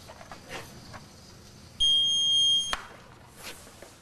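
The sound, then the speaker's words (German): A single shrill electronic beep, high-pitched and steady, sounds for just under a second as a water level probe touches the water surface in a finished well during a pump test, reading 3.80 meters, standing out loudly over faint background noise. “Das Piepen zeigt an, die Messsonde berührt die Wasseroberfläche.”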